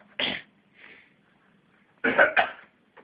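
The audio operator coughs while working: a single sharp cough, a pause with a softer breathy sound, then two quick coughs in a row, fairly loud, ending with a faint short catch of breath.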